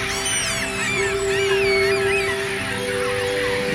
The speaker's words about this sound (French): Le soleil déchire les dernières nappes de brume et inonde la plaine. Les oiseaux s'en donnent à cœur joie.